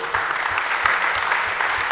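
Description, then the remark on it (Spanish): An audience claps steadily in a dense, continuous patter of many hands, fairly loud and even throughout, with no single voice standing out, applauding the two speakers at the end of a debate talk. “Un aplauso para los dos disertantes.”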